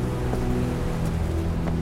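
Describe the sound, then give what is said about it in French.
A steady, loud, deafening roar of powerful surf churns without pause, waves breaking all around in a dense continuous rumble with a deep low hum running underneath and no voices. “Ce qui ne change pas, c'est ce vent incessant qui malmène les palmes des rares cocotiers et ces puissantes vagues qui déferlent tout autour dans un perpétuel grondement assourdissant.”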